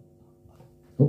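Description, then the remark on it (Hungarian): Audio feedback: a steady, low ringing hum holds throughout at a fairly quiet level, then swells suddenly into a louder, rougher burst just before the end. “valami gerjed.”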